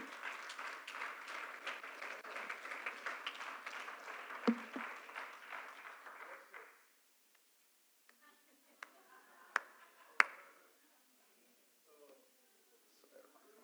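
A church audience applauds to give glory to God in a dense, steady wash of clapping for about six seconds, then it cuts off abruptly, leaving quiet with a few scattered sharp taps and clicks.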